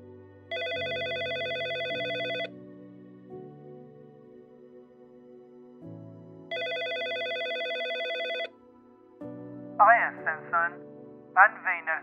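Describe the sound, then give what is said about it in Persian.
A telephone rings twice, each ring a long, steady electronic tone with a pause between, over a soft music bed. Brief voice-like chirps follow at the end. “هر دوی ما میدونستیم بالاخره با من تماس میگیرن و اون موقع بود که تلفنم زنگ خورد”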